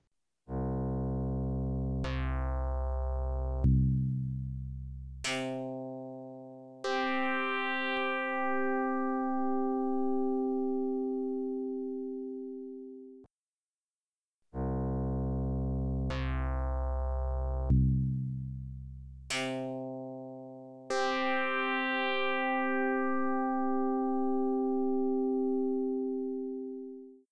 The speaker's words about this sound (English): Then I also took those same instruments and I uh, made a file for my Sega Mega Drive and then played those off the console as well. Um, so what you'll hear here is the instruments on YM2151 followed by the instruments on YM2612.